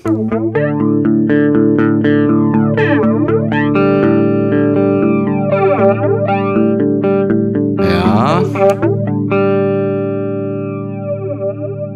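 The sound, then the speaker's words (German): A loud, sustained electric guitar run through a heavy effects pedal with its decay knob turned fully up and all other knobs at 12 o'clock, chords ringing with long smeared decay, swirling chorus-like modulation and distortion, with a brief noisy burst midway and no talking. “jetzt dreht er mal den Death voll auf, alle anderen sind auf 12 Uhr.”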